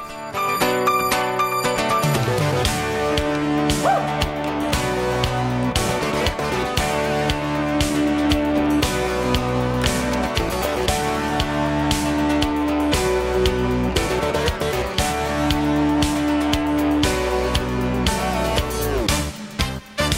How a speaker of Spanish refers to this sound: Otro eh, pop de la música brasileña por aquellos años era este, que está en el track número 4 de este disco, …, promocional de la CBS,